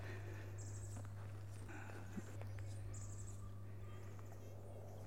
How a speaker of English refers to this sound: with the, all the singing birds around you, and you just must forget about the planes.